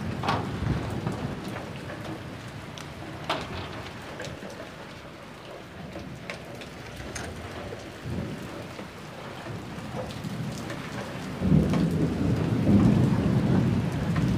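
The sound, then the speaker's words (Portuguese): Steady heavy rain hisses throughout while low thunder rumbles roll in the background, swelling into a louder, deeper rumble near the end. No voices. “Agora eu vou entrar, parar de gravar esses trovão porque tá chovendo pra caralho.”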